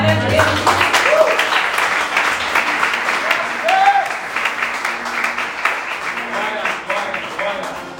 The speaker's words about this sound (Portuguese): Então glorifica a Deus, aplauda Ele.